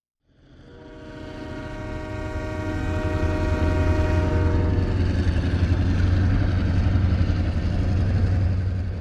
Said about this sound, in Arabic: وبينما كان يستعد ليخلع ملابسه وينضم إلى صديقه في الماء، سمع صوت قطار يقترب.